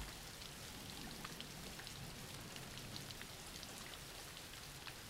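Steady rain falls continuously, a dense hiss of drops pattering on a surface with scattered brighter splashes. Quiet and even throughout, with no voices or other sounds.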